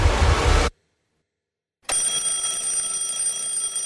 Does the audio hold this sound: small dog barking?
no